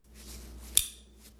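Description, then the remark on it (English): A buckle snapping shut: one sharp, crisp plastic-and-metal click, clear, heard alone against a quiet background with a faint low hum. “It's a buckle snapping.”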